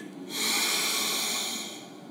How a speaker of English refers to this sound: Remind yourself of the value of breathing. Allow yourself to breathe deeply. Let your breathing remind you to fill yourself with God's presence.